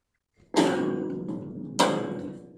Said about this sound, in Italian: il nostro stacchetto gong bastone del tuono. Esatto, che è perfetto per introdurre qualche curiosità sulla vita di Gianni.